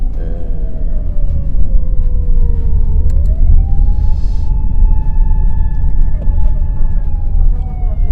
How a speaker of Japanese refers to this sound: ちょっと緊急車両行かせますね